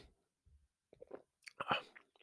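A quiet sip of rye whiskey from a Norlan glass: a few soft wet mouth clicks, then a brief slurping draw and a swallow, with no talking.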